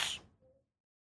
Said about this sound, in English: Bless you. Bless you.